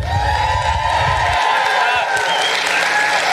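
Loud, sustained applause from a crowd, with dense clapping and some cheering and whoops mixed in, staying steady throughout.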